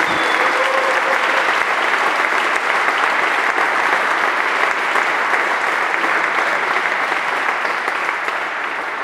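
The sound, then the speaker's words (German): A large live crowd of basketball fans applauds and cheers the German national basketball team continuously, a dense, steady roar of clapping with a few whistles and shouts, loud and sustained throughout with no talking. “Aber wir haben einige Basketballfans hier und wir lassen auf jeden Fall die deutsche Basketballnationalmannschaft nochmal hochleben, würde ich sagen.”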